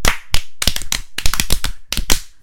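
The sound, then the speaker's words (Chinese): Hands clap the patterned 'love encouragement' cheer for full-time mothers, loud sharp claps arriving in short bursts and groups, like a cheer routine. No one speaks over the clapping. “再重来一次爱的鼓励，一起来！”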